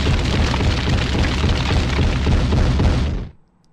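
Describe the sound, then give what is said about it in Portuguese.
A MOAB bomb explosion sound effect: a loud, deep, rumbling roar that holds steady for about three seconds, then cuts off abruptly into near silence. No one speaks. “Pra terminar, solta Moab, Matheus.”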